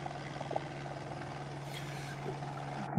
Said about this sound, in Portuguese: Desculpa, o helicóptero tá te tá, atrapalhando de ouvir? Tá, barulho aqui, peraí, me dá só três minutos. Claro. O helicóptero tá chegando com outro paciente.